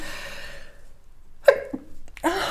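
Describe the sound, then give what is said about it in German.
A single sharp sneeze bursts out after a brief quiet pause, followed by a short breathy exhale and a faint rustle. “oh, jetzt muss ich niesen.”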